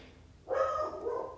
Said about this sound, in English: And excuse the dog if you can hear it barking.